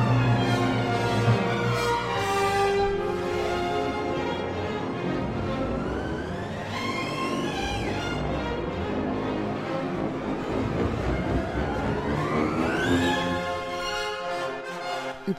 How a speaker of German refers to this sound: ja dann kommt eben ein solches Getöse, ein solcher Lärm, ein solches Gewitter zustande. Ein komplettes Gewitter nicht als Schauspiel am Himmel, sondern als musikalisches Erlebnis.